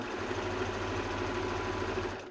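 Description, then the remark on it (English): A sewing machine runs steadily, stitching kids' clothing with a fast, even mechanical whir and rapid repetitive clatter, continuous with no voices. “Um, but of course, you can do this on the sewing machine.”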